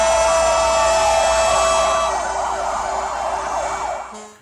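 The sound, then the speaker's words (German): Fire engine sirens wail loudly and continuously as firefighters support a farmers' protest in Holland, several overlapping tones sweeping up and down, with a low vehicle rumble beneath; the sound holds before fading near the end. “In Holland geht der massive Protest der Bauern weiter. Dort unterstützen Feuerwehrleute den Bauernprotest.”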